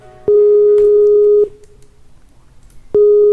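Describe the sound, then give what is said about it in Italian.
An outgoing phone call rings out with a steady, loud electronic tone, one burst of just over a second, a pause, then the next burst starting, with faint background noise in between. “Ok, squilla è già un buon segno.”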